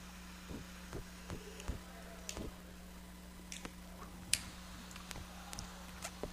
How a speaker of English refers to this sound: It's that sound. Sound of lighters. There is something to that, though. At least they know we're lighting the cigar up.